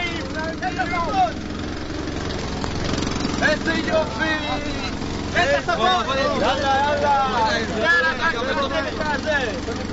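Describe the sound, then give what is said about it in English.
A water tanker truck's noisy motor drones steadily as it reaches troops waiting in the desert sands in the south, a low rumbling hum running under several people talking and calling out over it. “Meanwhile, in the south the troops lie in wait in the sands of the desert, dreaming of the delights of a cold shower, till one day the dream materializes in the form of a water tanker with a noisy motor.”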